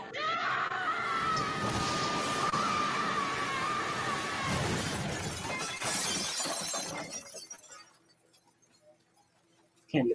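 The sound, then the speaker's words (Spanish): Loud, chaotic glass shattering during a fight scene in a film fills the first seven seconds, with a scream and raised voices mixed in, then the crashing fades into scattered tinkles and near silence before a final short knock. “los cristales ahí. Que de hecho eso está muy peligroso.”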